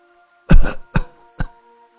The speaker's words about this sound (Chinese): 突然，从身后传来一阵咳嗽声，